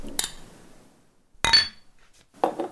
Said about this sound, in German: Prost, Prost. Prost, Herren. Ja, da stoßen wir da an.